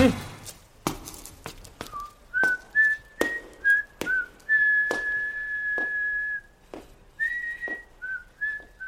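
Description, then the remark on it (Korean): A person whistles a bright, wavering melody of held and sliding notes, clear, over a steady beat of sharp knocking thuds. “휘파람을 불 줄 몰라.”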